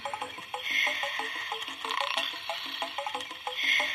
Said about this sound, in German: man hört ein Schnarchen. Und das ist das Küken im Ei, das gerade schläft.